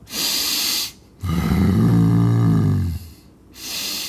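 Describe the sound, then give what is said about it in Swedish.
A person breathes heavily and deliberately in their deepest, low voice: an airy rasping breath, a long guttural growling exhale, then another airy breath, fairly loud, like an animal. “så jag försökte nu andas med min djupaste röst så här.”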